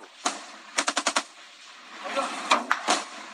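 Bursts of gunfire from very heavy-calibre weapons crackle out during an armed clash in the Uruapan area of Michoacán, Mexico: a single shot, then a rapid string of five shots, followed by scattered further shots over a noisy background, sharp.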